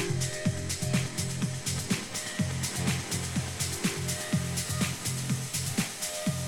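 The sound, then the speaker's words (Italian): A long electronic music build-up: rapid, steady clicking pulses repeat over a sustained low drone, holding an even, driving loudness throughout with no voices. “sentite con noi questo drop lunghissimo? Scusate, build up lunghissimo, vergogna.”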